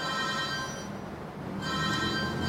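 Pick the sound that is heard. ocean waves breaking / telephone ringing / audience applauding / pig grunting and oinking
telephone ringing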